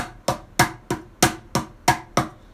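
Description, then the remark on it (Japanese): A mini cajon is struck eight times in a steady, even rhythm, each hit a crisp, sharp slap with a short woody body that quickly decays. No voices accompany the beat. “ミニカホンを叩いてみた④〜シャッフルについて〜”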